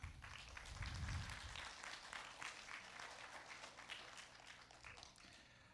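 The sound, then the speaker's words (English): A crowd gathered to celebrate Christmas claps steadily for several seconds, a dense patter of many hands that swells early then holds at a fairly even level, with a low rumble near the start. “You can clap.”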